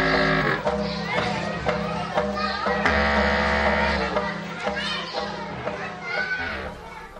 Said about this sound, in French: la récréation donne le cadre spatial et, temporel du documentaire. On est dans une cour classique